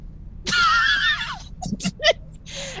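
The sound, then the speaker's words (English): A person imitates a lion's roar with a strained, raspy cry lasting about a second, then follows it with a few short breathy bursts and gasps. “It's a roar.”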